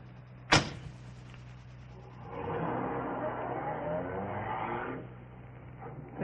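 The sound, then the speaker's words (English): A sharp thump, then a car engine idles low and steady before swelling in a moderately loud rush as the vehicle pulls away, fading slightly near the end. No one speaks. “Come along, bring your bag. The car's right here.”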